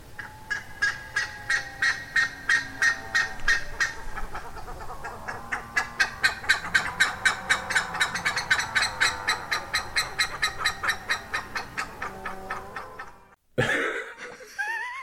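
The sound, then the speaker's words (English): A buff-necked ibis gives a long, loud series of rapid, repeated honking calls in a steady pulsing rhythm, ending with a brief break and a harsher burst. “yeah, so here here is a um, recording of its beautiful song.”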